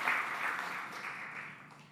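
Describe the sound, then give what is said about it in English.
A church audience in Canton, Georgia claps together during a Sunday morning service in a dense, steady wash of applause that starts strong and slowly fades over two seconds, with no voices standing out. “you get whatever you want for lunch now because you told them to clap for me.”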